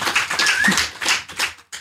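An audience applauds, a dense wash of many hands clapping at once that swells and thins over under two seconds before fading out, with no voices over it.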